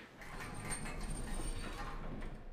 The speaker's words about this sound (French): Les portes du petit ascenseur vide s'étaient ouvertes et Karim y était entré.